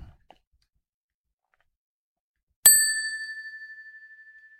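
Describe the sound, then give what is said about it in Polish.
A single bright ding from a small bell after a moment of near silence, its clear tone ringing on and slowly fading with a gentle shimmering pulse. “Tak trochę się spóźniłem z tym dzwoneczkiem.”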